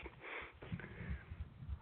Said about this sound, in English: All right. I just took a sniff. Mm-hmm. Not sure about that.